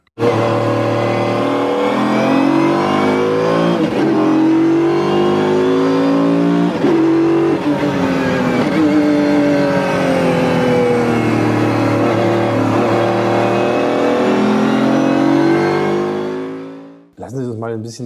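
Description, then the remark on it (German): A Mercedes-Benz CLK GTR supercar engine, taken out of its garage, revs loudly, its harmonics climbing and falling through several throttle blips over about seventeen seconds before cutting off, followed by a brief burst of speech. “Und was er so hört, wenn er ihn mal aus der Garage holt, das hören wir uns jetzt mal an.”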